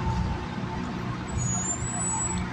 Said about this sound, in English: Like right now, this truck coming. If people don't know this is a hood podcast. You will hear trucks